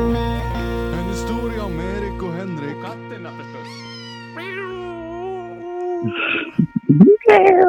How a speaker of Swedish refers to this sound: Den är så gullig, det där kattpipet där på slutet. Ja, det är väldigt bra kattljud. Mm. Det, man hör att det är en jätteliten kattunge. Ja, det hör man.